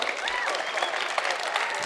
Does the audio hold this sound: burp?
no